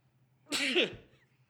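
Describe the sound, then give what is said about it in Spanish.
A single sharp sneeze bursts out, loud and brief, with a breathy voiced edge, over a faint low background hum. “Puedes estornudar 10 veces más.”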